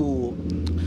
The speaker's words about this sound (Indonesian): Yang itu barusan suara motor kita editing lagi ya.